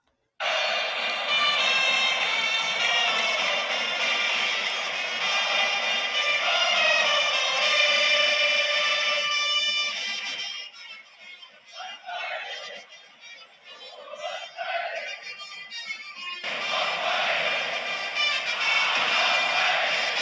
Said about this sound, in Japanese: でちょっとね、録音してきたんですけど、これ聞いてもらいたいんですけど、オリックスのチャンスの場面でのチャンステーマ、これバファロック。ね、まずはこのバファロック聞いていただきましょうか。これ大きいんですよ、オリックスのファンの声援が。声の塊となってね、届くんですよ。バックネット裏の記者席で聞こえてきたボリューム。